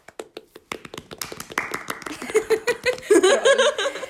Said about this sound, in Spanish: Sí, aplausos, aplausos.